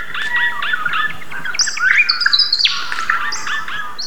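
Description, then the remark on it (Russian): An adult male regent honeyeater, an Australian bird, sings its correct species song, recorded by Australian ornithologist Ross Crates: a bright, rapid song of metallic chirps and rising whistled notes, mostly in a high register, repeating in short bursts over about four seconds with no talking. “Такую должен петь настоящий взрослый бородавчатый медосос.”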